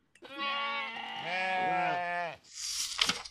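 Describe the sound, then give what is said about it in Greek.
A single long, wavering sheep bleat, loud, lasting about two seconds, followed by a short burst of breathy rustling noise. Sheep in a National Park, recorded for a Eurovision postcard film. “με το postcard τους να γυρίζετε στο Εθνικό Πάρκο δίπλα σε πρόβατα.”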